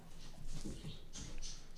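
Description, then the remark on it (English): A dog comes into the house: light pattering of paws and soft scuffling with brief high jingly bursts, quiet, with no talking. “Meanwhile, the house is falling apart sounds like my it, dog yeah. just got inside.”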